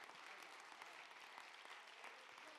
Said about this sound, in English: Clap your hands if you understood that.